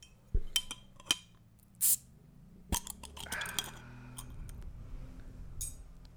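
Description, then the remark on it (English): Metal clinks against glass, then a beer bottle cap is pried off with a bottle opener, followed by a quick hiss of escaping gas and more scattered clicks and rattles. “So if you're at home, ready to dig into some short films with the Spicy Boys, you want to crack a cold one with us, now's the time to go ahead and pop that top.”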